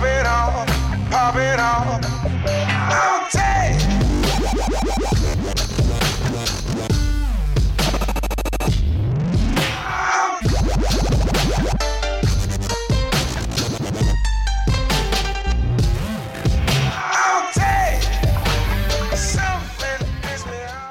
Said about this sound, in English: it's obviously got a lot of like EDM stuff kind of like layered behind it, which I think is cool